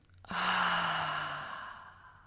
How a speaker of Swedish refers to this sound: Så bara släpp ner axlarna, ta ett djupt andetag in genom näsan, fyll upp både bröstkorgen och magen med ny luft, ny energi. Och andas ut genom munnen.